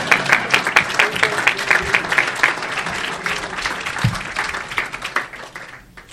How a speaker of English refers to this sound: And I also, that's okay, you can applaud, please.